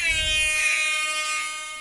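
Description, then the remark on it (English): A loud, sustained air horn blares for nearly two seconds, its steady harmonic tone holding without a break and fading only slightly at the end, with no talking over it. “got to have the horn sound off.”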